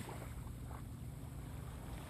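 Steady outdoor seaside ambience recorded on a beach: a broad wash of wind and moving water with low rumbling gusts, continuous, with no voices.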